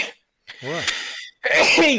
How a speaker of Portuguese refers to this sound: eu vou espirrar aqui vai.